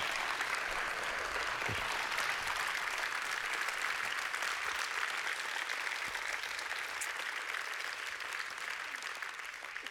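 An audience at a church service applauds steadily for the full stretch, a dense wash of many hands clapping at an even, sustained level with no voices rising above it.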